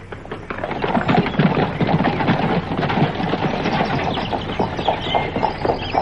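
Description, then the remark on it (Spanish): Hooves clip-clop in a steady rhythm as a carriage drawn by two horses rattles along, a continuous clatter of wheels and hoofbeats with no voices. “Se fueron en un coche tirado por dos magníficos caballos que recorrería en poco tiempo las millas que lo separaban de Deallanagro.”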